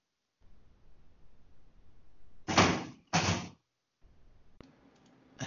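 Two loud, heavy crashes in quick succession as someone throws chairs and they bang, followed by a couple of sharper knocks against a low background rumble. No one speaks.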